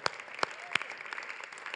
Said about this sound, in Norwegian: Vi klapper for han.